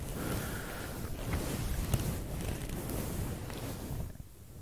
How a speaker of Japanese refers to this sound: このちょっとどうですかねモフモフ マイクのモフモフを雑に触ってますけど気持ちよ良いですか まあこういう音がね気持ち良い人にはたまんないと思いますけど